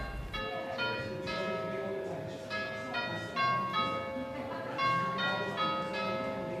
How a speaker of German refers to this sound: Diese Standuhr ist angeblich noch älter als das Raffles Hotel selbst. Sie schlägt jede Viertelstunde und bringt Westminster in die Tropen.